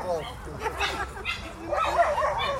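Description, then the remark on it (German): Several dogs bark and yip in quick, irregular bursts at a dog race on a greyhound track, where any dog can race in heats graded by size. The dogs sound excited, and voices murmur in the background throughout. “Und äh, dieses Hundrennen ist dann so äh, gestaffelt, dass jeder Hund dort antreten kann, eben nach gestaffelt nach Größen.”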